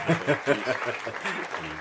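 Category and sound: sound effect, applause sound effect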